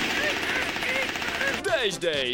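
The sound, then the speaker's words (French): A voice imitates machine gun fire with a rapid, steady rattle of mouth-made bursts, then breaks into sweeping, falling vocal tones near the end. “Les mitraillettes, ah je les vois, elles sont là au coin, effectivement.”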